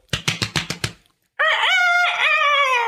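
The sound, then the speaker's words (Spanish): A rooster on a farm in Oklahoma crows loudly in a long, sustained call in the morning, preceded by a quick series of five short clucks, with no talking. “Estaba el gallo y empezó en la mañana, porque me quedé a dormir en la granja.”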